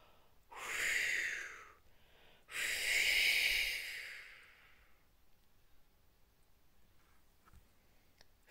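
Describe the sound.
A voice imitates wind by blowing breath in two long, whooshing gusts, the second longer and stronger, followed by near silence with a few faint clicks.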